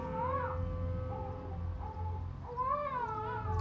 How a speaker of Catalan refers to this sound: I és petit. Això és plor d'una criatura ben petita quan fa que plora? Ben bé mitja hora? Sí, sí, mitja hora.